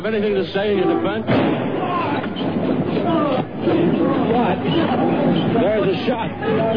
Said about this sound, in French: Oswald a been shot. Oswald a été shot. On a tiré sur Oswald. A shot rang out as he was led. Un coup de feu a été tiré au moment où on l'emmenait vers la voiture.